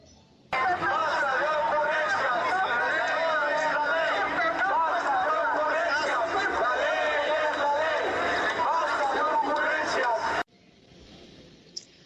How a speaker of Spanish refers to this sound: caminaron este domingo al Zócalo de la Ciudad de México y replicaron esta marcha en más de 40 ciudades, incluso algunas fuera del país, donde al grito de no más ocurrencias, la ley es la ley, refrendaron su respaldo al Poder Judicial.